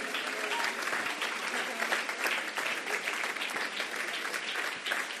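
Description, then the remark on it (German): Steady audience applause for about five seconds, given to people who have stood up in the front rows, a dense crackle of many hands clapping at an even loudness, with no talking on top. “Yes, das ist euer Applaus schon jetzt, oder?”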